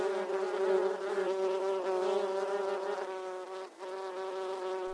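A steady buzzing of bees fills the whole stretch, a dense harmonic drone with a brief dip near the end before it resumes, no voices present.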